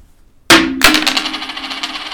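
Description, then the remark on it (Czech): Dice are thrown onto a hard surface: a sharp clack, a second hit, then a bright tumbling rattle of small bounces that gradually settles, landing on a two. No one speaks. “A já hážu. A ty hážeš a já dneska jsem ve velkým střehu, protože opravdu záleží na tom, jak to padne.”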